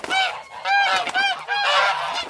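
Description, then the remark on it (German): Loud goose honking: several harsh, nasal honks in quick succession, one overlapping the next, with no talking; police geese in Dongwan, China, which are kept to scare off thieves. “In Dongwan, das ist eine Region in China, gibt es Polizeigänse.”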